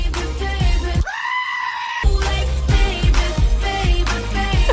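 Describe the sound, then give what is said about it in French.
A pop song with a steady thumping beat cuts out for about a second while a goat lets out one long, wavering, human-like scream, then the music resumes. “Je sais pas c'est quoi cette chèvre.”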